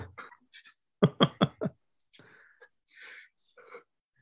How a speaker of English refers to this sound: oh, that was I was yawning. Sorry.